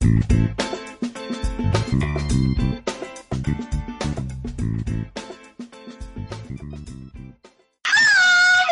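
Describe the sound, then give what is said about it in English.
Upbeat music plays for several seconds, then stops abruptly and a single loud, drawn-out cat meow follows, wavering in pitch. “That's for one of our tabbies who suggested we do a little something different.”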